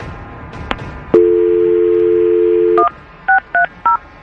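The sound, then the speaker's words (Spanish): A steady dial tone hums for about two seconds, then three short two-tone keypad beeps follow in quick succession as a phone number is dialed. No one speaks. “vamos a marcarle.”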